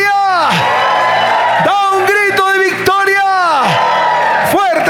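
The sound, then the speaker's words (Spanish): An audience at a church service shouts and whoops together in a loud victory cry to the Lord, with many overlapping voices rising and falling in long, sustained bursts lasting several seconds. “Da un grito de victoria.”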